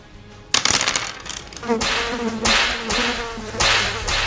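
Loud buzzing of many flies, swelling and fading in several overlapping surges as if a swarm is darting past, with no voices.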